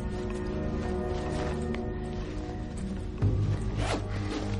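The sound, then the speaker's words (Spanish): A brown backpack with a revolver inside is zipped shut in a few quick, rasping strokes over a steady low hum, with no voices. “La cierra y queda pensativo.”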